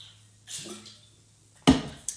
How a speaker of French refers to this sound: Euh, bon, je vais encore, je prends une petite gorgée d'eau, je m'excuse.